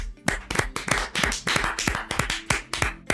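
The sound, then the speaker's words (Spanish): Hands clap in a quick, steady rhythm, a dozen or so sharp claps over a few seconds, fairly loud and with no talking. “Aplausos.”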